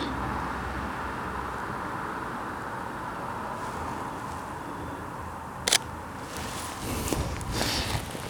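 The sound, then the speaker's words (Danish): A single crisp camera shutter click sounds against a steady, rumbling outdoor background, followed by a few soft rustling handling noises, as a photo is taken in the dark at about 8 on a Friday evening. “Se om vi kan få et billede der af den.”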